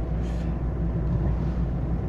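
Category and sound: vehicle, car interior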